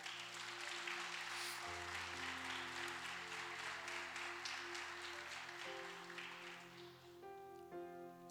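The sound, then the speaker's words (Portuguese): An audience claps steadily in applause to the Lord, a dense, sustained wash of clapping while sustained organ or keyboard chords play underneath, the clapping thinning slightly toward the end as the music shifts. “Aplauda ao Senhor, porque Ele é bom.”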